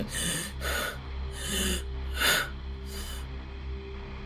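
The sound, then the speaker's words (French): A voice imitates the laboured, wheezing breathing of a weak man in a wheelchair whose state has worsened, a few metres away: five harsh, rasping breaths in a steady rhythm, fairly loud, over a faint low hum, with no talking. “Mais t'as l'impression que son état s'est empiré. Il y a quelques mètres de toi, et en mettant sa respiration”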